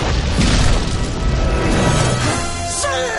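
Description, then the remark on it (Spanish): Loud explosions boom in quick succession as two cannons are destroyed, their heavy rumble filling the whole moment, with a sharp whining sweep cutting through near the end. “Destruye dos cañones.”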